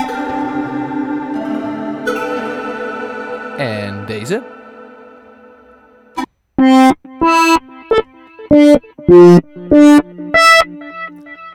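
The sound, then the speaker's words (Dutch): Sound effects from an old analog synthesizer: a sustained buzzy drone, a swooping warble, then a run of short, loud harmonic bleeps in a choppy rhythm. A voice speaks briefly between sounds. “Eh, ik heb namelijk eh, op mijn werk een oude synth, of een oude, een, een synthesizer gevonden, eh, maar een analoge synth. Eh, die allemaal geluidjes kan produceren, zoals deze.”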